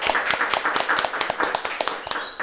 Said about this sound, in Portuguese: Uma salva de palmas